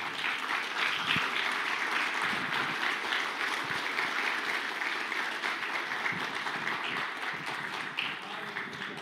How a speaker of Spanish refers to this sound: Denle una ofrenda de palmas a nuestro Señor Jesús.